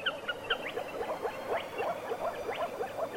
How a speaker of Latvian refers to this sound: mēs dzirdējām mērkaziņu. Mērkaziņu? Jā, Kāpēc mums jādzird mērkaziņu.